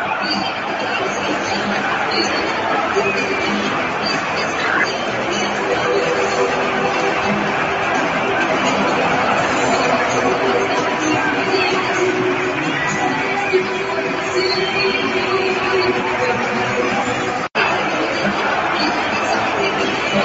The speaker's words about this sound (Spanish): Fiesta total en el estadio, ¿eh? Fiesta total. Y me gustaría saber qué gritan, porque no entiendo qué estaban gritando. O sea, cuando suena la canción gritan algo.